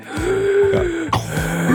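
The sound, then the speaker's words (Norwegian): A voice imitates the heavy, labored mechanical breathing of Darth Vader from Star Wars, a long drawn breath followed by another, rasping, with no words spoken. “Hvordan puster, puster ikke Darth Vader sånn?”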